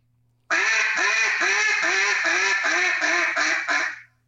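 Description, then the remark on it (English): A duck call blown in a loud, steady series of about eight raspy quacks, imitating a mallard hen's cadence, with the final notes trailing off quickly. “That first cadence sounds so ducky, like just like a mallard hen.”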